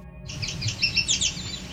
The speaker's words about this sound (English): Listen carefully to the very high pitched whine you'll hear after this yellow warbler song That's the cedar waxwing, and if you didn't hear it, here it is again.